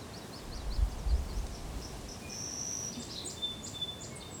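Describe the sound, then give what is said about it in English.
Birds chirp outdoors: a series of short, high tweets and a few thin whistles, fairly faint, over a steady background hiss with a couple of low thumps. “Maybe you can hear the birds chirping from where I am.”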